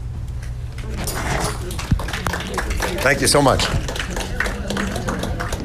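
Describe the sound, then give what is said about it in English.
A crowd claps steadily throughout, a dense patter of many hands, while a person speaks briefly over the applause; the audience at a live event is applauding for the guest. “let's give a round of applause for …”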